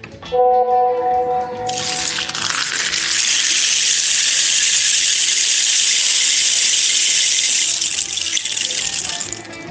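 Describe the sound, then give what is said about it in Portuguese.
An indigenous rain stick tilted, pouring out a steady, bright hissing cascade like falling rain for about seven seconds, preceded by a brief squeaky tone at the start. “fazer um pau, um pau de, é pau de não, pau de chuva”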